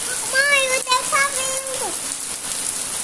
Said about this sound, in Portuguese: Que delícia esse barulho de chuva, som da chuva, né, filha?